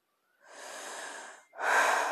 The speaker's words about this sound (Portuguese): a minha respiração, que está um pouco mais pesada